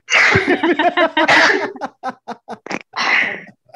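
Close-up sneezing mixed with laughter: voiced giggling at first, then a quick run of short breathy bursts and a final forceful, noisy sneeze.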